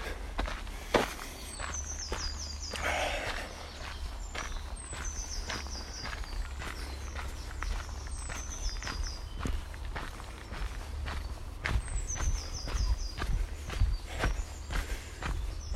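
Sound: footsteps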